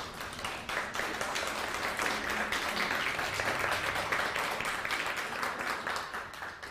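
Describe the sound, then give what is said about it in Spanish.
Steady, dense crowd applause for the United States fills the whole stretch, a broad crackling wash of many hands clapping at an even level, with only a faint hint of voices underneath. “Un fuerte aplauso para Estados Unidos.”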